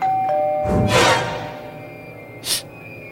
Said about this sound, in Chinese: 电话还没通，门铃突然响了。